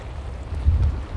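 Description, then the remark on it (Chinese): Sea waves washing against the shore, heard from a rock very near the waves, make a steady, low, rushing roar that swells briefly in the middle, with a windy hiss over it and no voices. “这块岩石离海浪非常近，我可以望着海浪拍打在岸边，”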